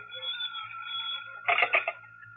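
A telephone rings once in an office, a short trilling burst that rises over a steady electronic tone, moderately loud, with no one speaking.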